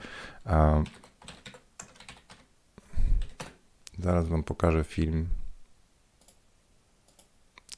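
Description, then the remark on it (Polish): Computer keyboard typing and mouse clicking, a scatter of sharp, irregular taps that continue between and under a person's short bursts of speech, while switching over on the computer to show a YouTube channel. “Ja teraz się na chwilę przełączę, żeby, bo ja muszę poklikać, ale chcę Was zachęcić.”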